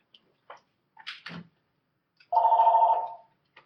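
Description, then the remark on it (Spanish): A few soft clicks and rustles, then the speaker's own phone rings during her introduction: one steady, slightly pulsing electronic tone lasting under a second before it stops. No one speaks. “Em, ay, está mi teléfono, perdón.”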